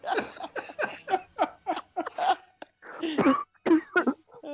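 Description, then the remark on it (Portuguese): A coughing fit: a rapid string of short, harsh bursts, then a few heavier, longer coughs after a brief pause, with no speech. “Nossa, até a tosse voltou.”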